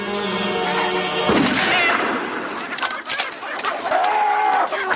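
Chickens cluck and squawk in a noisy flurry after a sudden sharp burst, their agitated cries overlapping as a man scares the flock away.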